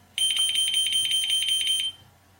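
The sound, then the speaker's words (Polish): A pager's electronic alert tone at a fixed, non-adjustable level of 85 dB: a loud, shrill beeping that pulses rapidly, roughly a dozen quick bursts in under two seconds, then stops. No voices. “Tak brzmi pierwszy sygnał. Naciskam drugi klawisz.”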